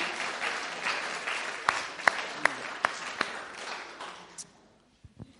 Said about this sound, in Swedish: He's playing so nicely. Can you clap hands for her? Kan ni klappa händerna för henne?